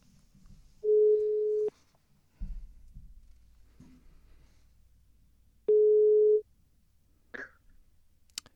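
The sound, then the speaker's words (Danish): An outgoing telephone call's ringing tone heard from the caller's end as a journalist is called: two steady, low electronic beeps, each lasting about a second, separated by a long pause, clear and fairly loud with no one talking. “så ringer vi øh, journalist og øh, tidligere Radio 24 ansat op på, øh, på øh, på telefonen”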